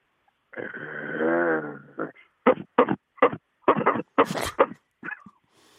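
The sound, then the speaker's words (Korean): A rural dog, kept loose outdoors in the countryside, gives a long, low growling whine, then lets out a run of sharp barks in quick succession, wary of a stranger, fairly loud, with no one talking. “그 사람을 경계하는 그 시골개들이 아, 있습니다.”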